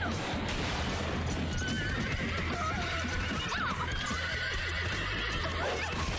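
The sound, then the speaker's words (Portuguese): A horse whinnies over steady clip-clopping hooves during a horse race, the rhythmic clatter continuing loud throughout with a busy, noisy background. “A corrida de, de cavalo tá ficando quente.”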